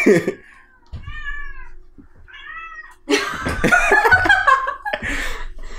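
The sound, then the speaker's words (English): A cat meows twice in quick succession, clear, followed by a burst of people laughing loudly over it. “No, Kitty.”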